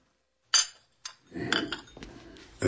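Teacups clink together a few times, sharp, with soft clattering and shuffling of crockery in between as tea is set out. No one speaks.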